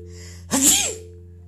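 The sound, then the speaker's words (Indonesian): A single sharp sneeze bursts out, a quick breathy explosion that fades within half a second over a steady low electrical hum. “nyuwun ngapunten wahing alhamdulillah”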